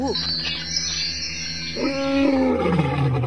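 A big lion lets out a deep, loud roar that rises and swells toward the end, rumbling with no talking over it.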